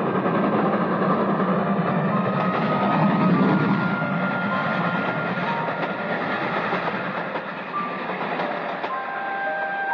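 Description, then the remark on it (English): A brilliantly lighted express train rushes past a switchman's cabin, shaking it, with a loud continuous rumble like thunder and metallic whines and squeals layered on top that holds steady for the whole stretch, with no voices. “And a brilliantly lighted express train shook the switchman's cabin as it rushed by with a roar like thunder.”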